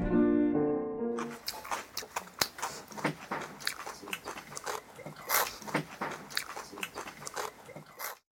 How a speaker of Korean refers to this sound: 지금은 산으로 가다 말고 지쳐서 오이 먹는 중. 아삭아삭 맛있는 오이. 아삭아삭.